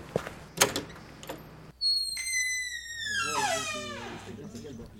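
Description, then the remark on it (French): The entrance door of an office building is pushed open with a long, high squealing groan that bends downward, preceded by a few clicks and thumps of handling, with faint room noise behind. “C'est donc un peu nerveux et stressé que je pousse la porte d'entrée des locaux du GPL.”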